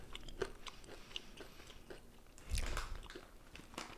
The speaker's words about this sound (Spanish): Oye, pues están buenos los puñeteros doritos. Ven. Ahora que ya nos hemos comido uno